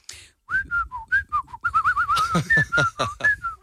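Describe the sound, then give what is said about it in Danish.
Someone whistles a lively melody, a string of clear, bending notes with a short trill, while faint voices murmur and shift in the background. “men hvordan kan du være så god til at fløjte?”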